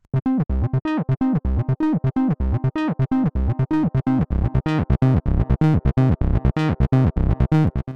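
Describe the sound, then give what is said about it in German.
A synthesizer plays a fast, steady sequence of bright, buzzy notes while the volume knob of its sub-oscillator is slowly turned up, bringing in a deep tone underneath that thickens the low end. No one speaks. “Wir fangen mal mit Volume an und fahren den langsam dazu, dass man auch den Unterschied hört.”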